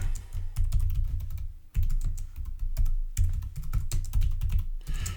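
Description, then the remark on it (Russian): Rapid, steady typing on a Bluetooth computer keyboard with the microphone placed right next to it, a dense stream of clicking keystrokes with brief pauses, fairly soft and muted, with no one talking. “И насчет бесшумности не знаю, но вот я сейчас начну печатать, и вот прям микрофон рядом стоит.”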